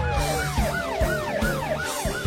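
An ambulance siren wails in quick, repeating falling sweeps, about three per second, loud and steady for the whole stretch, with a low rhythmic rumble underneath and no voices.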